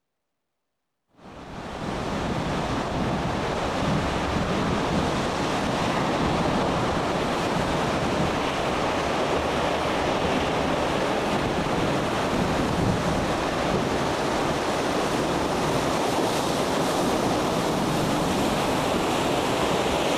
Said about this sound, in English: I found a video on YouTube of a fishing boat in a storm